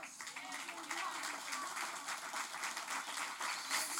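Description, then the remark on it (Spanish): A crowd applauds steadily for several seconds, many hands clapping at once into a dense, continuous wash of sound with a few voices mixed in. “oh, yo, espérate, espérate, dale el aplauso fuerte.”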